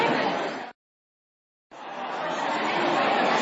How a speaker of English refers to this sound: Okay, let's hold, hold conversations there lots of chat about breakfast. That's um, that's a good thing.